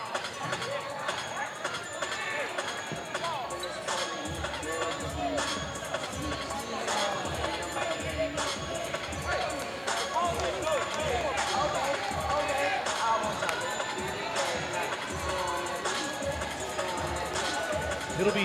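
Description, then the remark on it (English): The Spartan Army student fan section cheers at a Monroe versus Sun Valley high school basketball game, with a steady, loud wash of crowd noise and chanting voices over the sharp squeaks of sneakers and bouncing basketballs on the court. “You can hear the Spartan Army getting fired up.”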